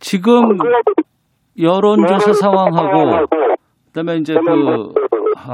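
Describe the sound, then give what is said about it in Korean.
Supreme council member Lee Jun-seok speaks over a poor telephone connection during a broadcast interview, his voice thin and clipped, with the line dropping out into abrupt silence twice before the talk resumes. “전화 연결 상태가 예, 지금 잘안 좋은 것 같은데 다시 연결을 좀 해볼까요?”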